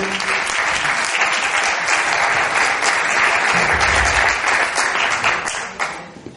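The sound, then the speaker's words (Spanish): An audience applauds steadily, a dense, sustained patter of many hands clapping at an even loudness for several seconds before it begins to thin out and fade at the end. “Un aplauso.”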